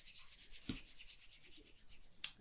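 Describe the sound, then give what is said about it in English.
Soft, steady, quiet scraping and rubbing as a tool works filler into gaps on the feet of a sculpture, with a low thump near the start and a sharper scrape toward the end. “I'm going to fill out one of these gaps on his feet.”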